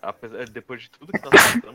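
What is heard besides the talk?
sneeze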